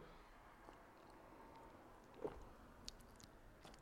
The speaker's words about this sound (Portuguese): Vou com ele lá fora, estou a, estou a caminhar, deixa-me só aqui dar um golinho de água, dê-me permissão, por favor.